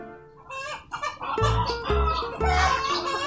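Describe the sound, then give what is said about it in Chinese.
Young roosters in a chicken coop at a university lab building cluck as students in white coats come to catch them, a dense, overlapping flurry of short, raspy calls with a few higher squawks mixed in; the chatter is fairly loud and continuous, with no talking. “那些鸡基本上都是一些小公鸡，”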